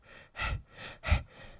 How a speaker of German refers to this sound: Jetzt hat mich dieser Nieser hier raus.